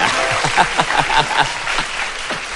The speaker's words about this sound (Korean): 어, 일단 박수 한번 보내줘야 되겠네.